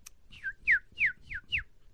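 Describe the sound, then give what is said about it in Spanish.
A chick being sorted by a chick sexer in Sonora, Mexico peeps five times in a steady rhythm, each call a bright, high, downward-sliding note, over a low background rumble. “Sale el pollito.”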